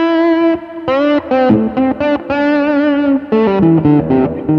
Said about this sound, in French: ah, j'ai mis un tube screamer. Ça donne vraiment un son vachement intéressant